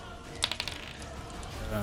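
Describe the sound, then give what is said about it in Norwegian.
A quick burst of small hard clicks and rattles as dice tumble across a tabletop during a tabletop role-playing game, several rapid taps settling within half a second, the roll coming up 16. “16 på terningen.”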